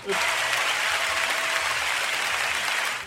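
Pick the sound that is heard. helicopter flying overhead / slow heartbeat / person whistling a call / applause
applause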